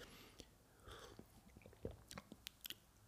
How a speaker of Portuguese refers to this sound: Desculpem lá mais uma vez a sorver aqui o meu chazinho.